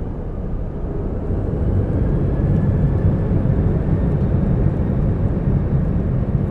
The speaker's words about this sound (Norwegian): Flyet letter, og Irene titter ut av det lille vinduet.